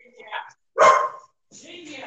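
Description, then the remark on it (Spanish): A female dog gives one loud, sharp bark, preceded by a softer yelp-like sound, with a person starting to talk right after. “Es mi perra.”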